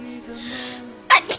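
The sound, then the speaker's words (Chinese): A sneeze from a person sitting at a desk while livestreaming: a soft breathy intake, then a sudden loud explosive burst followed quickly by a smaller second burst, over a faint steady hum. “我每次只要一开播，坐在这里就是疯狂打喷嚏。”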